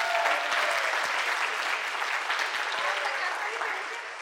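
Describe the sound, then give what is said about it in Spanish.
Sustained applause from an audience for two volunteers who come up to join the speaker, a dense, steady crackle of many hands clapping at an even loudness that tapers off slightly at the end. “Un aplauso para ellas.”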